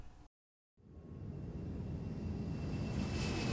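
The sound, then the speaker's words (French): An airplane comes in to land at Montréal, its engine roar swelling from a low rumble into a loud, steady rush after a moment of silence, with a faint high whine on top. “Que votre avion atterrisse à Montréal ne veut pas forcément dire que vous arriverez directement dans Montréal.”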